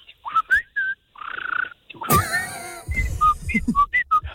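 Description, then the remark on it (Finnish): A person whistles an imitation of a common blackbird's song: quick, varied fluting phrases and short chirps in a lively run, fairly loud, with a burst of breathy warbling in the middle. “Ja mustarastas on se, on se tyypillisin, ainakin tämä kaupunkiympäristössä, että kun se rupeaa keväällä visertämään, niin se lurittaa koko ajan niin kuin”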